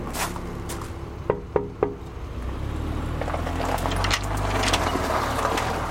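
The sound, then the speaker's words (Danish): Three quick knocks on a wooden door, sharp and hollow, in a fairly even rhythm, with steady background rumble and shuffling continuing after them. “Vi nok bare lige banke på.”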